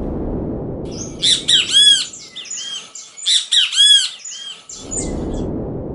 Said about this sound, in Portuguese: O passarinho ele sempre faz o som nessa ordem. Bem TV. Você nunca viu um passarinho que faz é, é, tive bem? Tive bem! Não faz, ele não troca a ordem. Ou seja, existe uma sintaxe implícita na ordenação das vocalizações para que o som seja reconhecido.